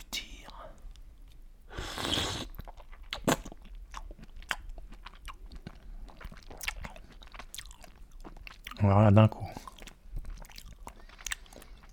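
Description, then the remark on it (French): Someone slurps and swallows a raw oyster after emptying its first water and detaching its small foot: a brief wet sucking burst, soft mouth and chewing noises, then a short voiced hum, with quiet murmured speech in between. “Décaloter le petit pied, porter l'huître à sa bouche et la déglutir.”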